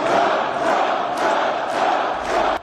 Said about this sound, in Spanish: El expresidente Donald Trump fue recibido entre aplausos y pancartas de apoyo por parte de trabajadores automotrices en esta fábrica de piezas de repuesto no sindicalizada en Clinton Township, en Michigan.